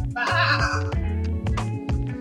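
A sheep bleats in a wavering, nasal call, set over a steady rhythmic music bed with a pulsing bass line and light percussive ticks. There is no talking.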